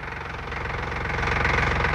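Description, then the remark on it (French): An old car engine sputters and rattles as it is started with the choke and rolls through a clearing, its knocking rhythm rising steadily in loudness as it keeps running, with no voices present. “Et la voiture, la belle voiture de Léonard, la voiture du clair de lune roule un moment à travers la clairière”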